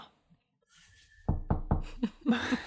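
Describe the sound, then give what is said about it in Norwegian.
Three quick, solid knocks on a wooden tabletop, fairly loud, followed by a few softer taps and rustling. “Bank i bordet. Nå går det bare oppover, håper vi.”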